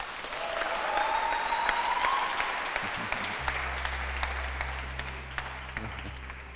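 An audience applauds in a steady, dense wash of clapping for several seconds, fairly loud throughout, with a low droning hum joining partway through.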